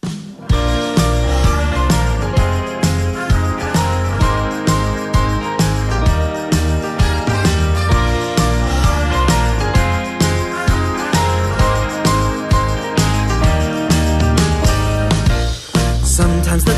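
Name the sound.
song intro music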